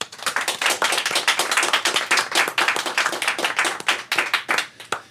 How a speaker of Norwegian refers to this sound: Vi klapper i dette programmet regelmessig, men det vi skal snakke om i dag, er ikke så mye å klappe for.